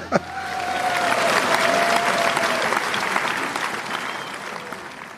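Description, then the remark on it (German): Sustained applause from an audience after a humorous poem recitation, many hands clapping in a dense, steady wash that swells quickly and then gradually tapers off, with no voices on top. “Ja, jetzt dürfen sie klatschen, wenn sie wollen, nicht?”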